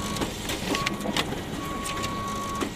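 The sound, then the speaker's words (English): An office printer gives three steady electronic beeps, short then longer, as a sheet of paper comes off it, over its clicking and whirring mechanism as the sheet feeds through, with no one speaking. “To the oh so unnecessary three tones for every sheet of paper coming off the office printer.”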